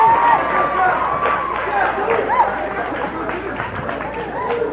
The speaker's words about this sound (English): Yeah, it's, it's worth it's worth the applause and the scream and, and you know what that says it means you love these people if you if you love these people they're here for you